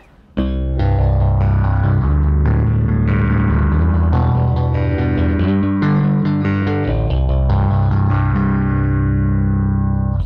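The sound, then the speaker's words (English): A bass guitar plays a continuous run of notes through a phaser effect, its tone sweeping and swirling. The playing is loud, with no voices. “And there's also a song that we play sometimes where I throw on the phaser.”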